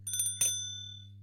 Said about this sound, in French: C'est une sonnette de vélo. C'est une sonnette de vélo que vous mettez euh, sur euh, le guidon, vous vissez et après vous klaxonnez.